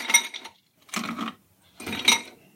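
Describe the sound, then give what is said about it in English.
Ice cubes tumble into a mixing glass holding the ingredients of a South Side cocktail, filling it to the top in three quick scoops, each a bright rattle of clinking, separated by brief pauses with no one talking. “So we're building all of these ingredients in our mixing glass, and we're going to fill it to the top with ice.”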